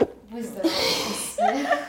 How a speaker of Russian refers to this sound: Я сейчас чихну.